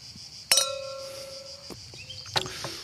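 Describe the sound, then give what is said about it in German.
Wine glasses clink together in a toast during a wine tasting, a bright ring that sustains for over a second, followed by a second, shorter clink a moment later. “Okay, dann zum Wohl. Zum Wohl.”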